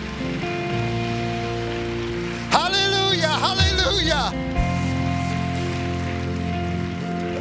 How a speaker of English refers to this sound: Come on, let's give God a strong hand clap offering.